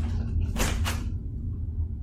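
A bedroom door creaks open in two drawn-out, scraping strokes over a steady low hum.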